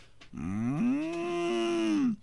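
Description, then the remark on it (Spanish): A cow lets out a single long, loud moo lasting nearly two seconds, its tone rising slightly then holding steady before trailing off, with no talking. “Y las vacas ya lo conocen uno.”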